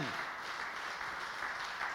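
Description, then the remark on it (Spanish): An audience applauds the Lord together, a dense, steady wash of many hands clapping at an even level throughout, with no individual claps standing out. “¿Cuántos pueden aplaudir al Señor?”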